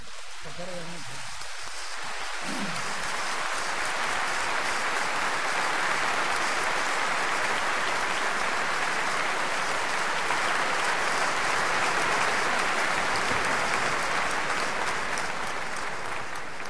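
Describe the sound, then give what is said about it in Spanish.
Sustained audience applause at the Colón, which has opened its doors to tango, for the organizers of El Nuevo Canto. Many hands clap in a dense crackle for over a dozen seconds. The applause rises quickly after a brief spoken moment at the start and holds loud and even throughout. “y realmente lo han logrado y pediría personalmente para estos muchachos que forman parte de esa organización, el nuevo canto, pediría un aplauso para ellos.”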